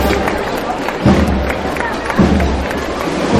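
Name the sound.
crowd clapping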